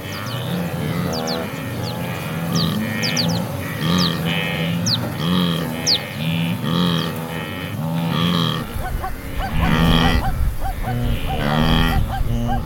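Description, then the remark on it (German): A large herd of young and old zebras and wildebeest on an endless grass plain calls continuously, with sharp, somewhat panicky zebra barks over a dense bed of deep, relaxed wildebeest grunts. The sound is busy and overlapping, and the grunting swells louder near the end. “Das etwas panische Bellen zwischendurch, das sind die Zebras. Und das tiefere, entspanntere Grunzen, das sind die Gnus.”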